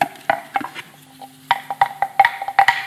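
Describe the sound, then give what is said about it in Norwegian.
A small camel bell shaken by hand, clanking and ringing in a dozen or so uneven strikes, with a short pause midway, fairly loud, with no talking. “Dette er ei kamelbjelle.”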